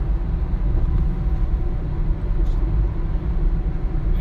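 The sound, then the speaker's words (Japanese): A steady, loud low-frequency rumble of a car driving across the Yodo River at Kadoma, Japan, with constant road and engine noise and no voices. “今ちょうど門真淀川渡ってますね”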